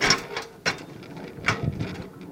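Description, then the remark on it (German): A rail draisine rolling along the tracks of a railway line begun in 1873 and opened in 1927, with a steady mechanical rumble broken by sharp metallic clacks at irregular intervals, a few louder jolts standing out. No one speaks. “Zurück auf der Dresine.”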